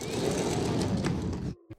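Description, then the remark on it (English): A glass sliding door rolls open with a steady, rumbling grind for about a second and a half, then stops abruptly, followed by a soft thud. “Now all we need to do is slide this glass door open.”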